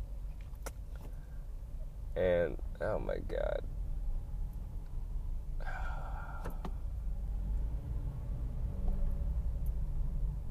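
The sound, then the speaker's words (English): Steady low road and engine rumble from inside a moving car in heavy traffic fills the whole recording, while a person speaks briefly and lets out a sigh over it. “So much fucking traffic.”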